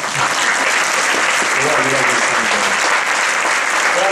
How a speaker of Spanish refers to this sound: Y quisiera pedir un aplauso para el Rab.